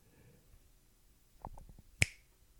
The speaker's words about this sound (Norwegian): det var knipset det.